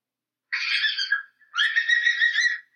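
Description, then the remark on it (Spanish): A rabbit gives two shrill, raspy squeals, each lasting about a second with a brief pause between, loud with no other sounds around. “Aunque usted no lo crea, es verdad, ese es el sonido de un conejo.”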